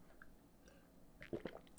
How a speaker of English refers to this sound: Uh, drink a water here real quick. Always stay hydrated, kids.